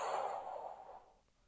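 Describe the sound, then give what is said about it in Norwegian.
A slow, soft breathy exhale after a held breath during a guided breathing exercise, steady at first and gradually fading out over about a second and a half, with no talking. “Hold pusten. Og pust ut.”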